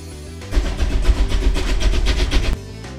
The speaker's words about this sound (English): Did you see that train? You're darn shooting I've seen that train. There's your pride and joy, just coming off the turntable. Yes, sir, the old express.